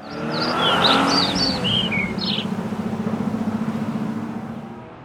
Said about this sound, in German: Wir nehmen ein Auto und fahren in den Weinkeller.